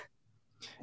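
A dog barks faintly in the distance, one brief sharp yelp near the end after a short pause of quiet room noise, with no talking.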